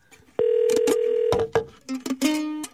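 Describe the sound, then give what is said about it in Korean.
Telephone dialing tones as a call is placed to a deer farm: a steady, fairly loud electronic tone holds for about a second, broken by sharp clicks, then a shorter, lower tone follows. No voices are heard. “사슴 농장으로 전화 한번 걸어주세요.”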